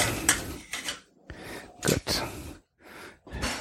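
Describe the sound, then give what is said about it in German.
Fairly loud kitchen clatter: several short bursts of dishes knocking and scraping, with the rattle and slide of a dishwasher rack as items are loaded, and no one talking. “So, und das kann jetzt schon mal in die Spülmaschine.”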